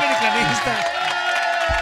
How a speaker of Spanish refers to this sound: unas palmas para ah, la humildad.